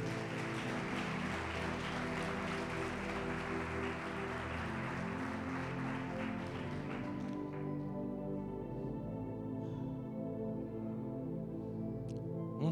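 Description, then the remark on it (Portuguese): A crowd claps steadily as a round of applause to the Lord over a sustained keyboard pad for about seven seconds, then the applause fades out and the soft music carries on alone. “Se você crê nisso, dá uma salva de palmas ao Senhor.”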